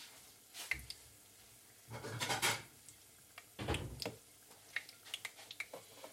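Someone fetches a plate from a cupboard to take out food being fried: two fuller scraping, rubbing bursts of handling, with sharp little clicks and knocks scattered around them, fairly quiet, no talking.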